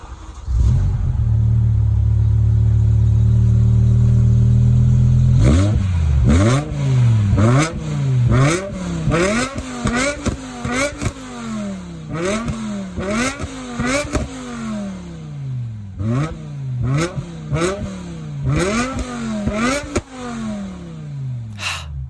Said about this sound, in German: Also ich muss sagen, ich könnte mir den Sound wirklich immer und immer wieder anhören. Also das ist einfach so ein Sound, wenn man den einmal gehört hat, vergisst man den auch nicht unbedingt wieder, ne? Nee. Also V10-Sound.